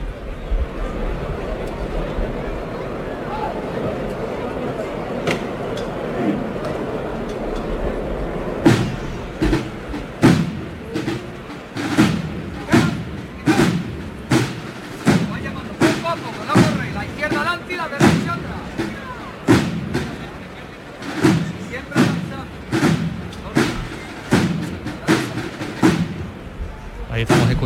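During a Semana Santa (Holy Week) procession, a foreman's (capataz) knocker raps out the signal to lift the paso float: after several seconds of murmuring crowd, a long series of sharp, loud knocks strikes at slightly uneven intervals.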